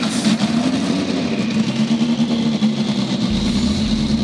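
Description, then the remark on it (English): Several Indy Next by Firestone race car engines start and roar loudly and continuously at Iowa Speedway, round eight of the 2023 championship, a dense droning blend whose pitch wavers slightly as they rev, with no voices over it. “Drivers, start your engines!”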